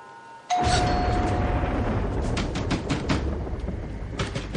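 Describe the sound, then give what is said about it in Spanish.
A doorbell at the street door downstairs in a house rings out abruptly, its steady tone cutting through a dense, rumbling wash of background sound that continues after the ring fades. “Están llamando abajo.”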